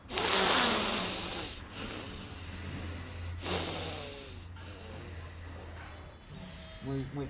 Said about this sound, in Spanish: Sigues con los ojitos cerrados, desde ese momento desactivas la boca para respirar y activas la nariz para respirar muy fuertemente.